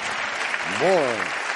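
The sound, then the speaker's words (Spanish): Steady applause from a group fills the whole stretch, dense and even, while a single voice briefly rises and falls in pitch over the clapping midway through. “un aplauso para ellos.”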